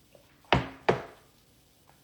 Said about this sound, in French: Donc, voilà. Je vais juste prendre une petite gorgée, je suis en train de m'assécher.